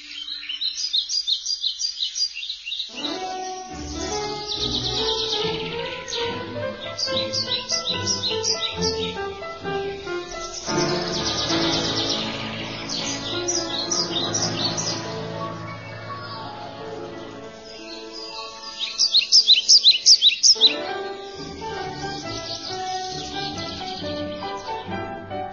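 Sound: songbirds singing and chirping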